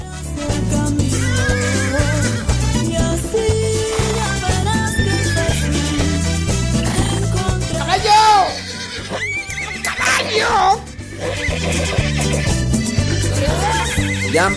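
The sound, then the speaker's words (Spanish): A horse neighs with shrill, wavering whinnies that rise and fall, loud, over a steady backdrop of rhythmic music, with a faint clip-clop of hooves. “caballo, no relinches. Espérate, caballo.”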